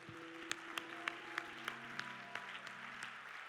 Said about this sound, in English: Let's clap our hands all across this house.